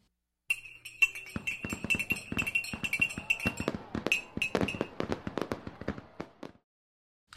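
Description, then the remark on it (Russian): A lit long strip of firecrackers pops in a rapid, irregular string for about six seconds, sharp cracks tumbling over one another with a faint high hiss running underneath before the bangs stop. “Вот ты, да, поджигаешь, и она вот начинает хлопать, хлопать, хлопать.”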